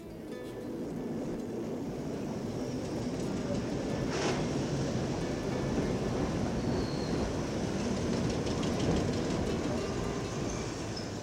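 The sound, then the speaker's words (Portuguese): A tram rolls slowly along its rails toward Escolas Gerais with a steady rumble and a faint metallic rattle, broken once by a brief sharp clack partway through. “O elétrico escorrega devagar para as escolas gerais.”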